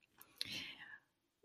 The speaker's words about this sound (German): Übrigens, wenn du jetzt dich gerade wunderst, was hier so für Geräusche kommen, das ist mein Hund, der ist so im Hintergrund und wimmert so ein bisschen. Eigentlich wäre jetzt mal Essenszeit angesagt, aber er muss jetzt noch sich gedulden,